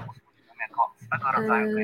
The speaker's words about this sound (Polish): Mam mały problem, mam jakiś pogłos.